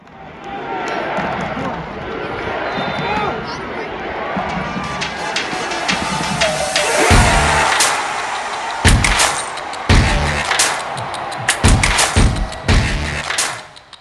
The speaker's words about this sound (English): Um, so I, I use the same penalty kick audio uh, with the song. So here we go.